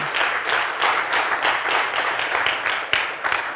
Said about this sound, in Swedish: Jag, ja, han är värd en applåd.